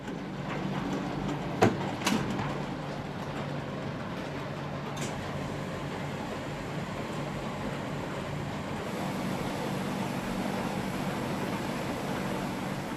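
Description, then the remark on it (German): A steady, dense mechanical rumble of 50 professional washing machines running in a laundry, being filled and monitored while washing dirty mops, with a low hum, sloshing noise and a couple of sharp clicks early on, no voices. “50 professionelle Waschmaschinen muss sie füllen und überwachen.”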